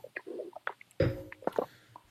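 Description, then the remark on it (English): A big, throaty gulp while drinking, a single low thump in the middle, surrounded by soft wet mouth clicks and smaller swallowing noises, with no talking. “I just heard a big gulp.”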